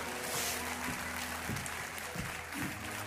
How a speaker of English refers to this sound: Somebody ought to give God a clap offering.